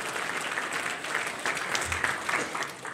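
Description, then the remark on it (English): A room full of people claps steadily, a dense, sustained wash of applause that holds at an even level for a few seconds with no voices standing out. “Say, round of applause for me.”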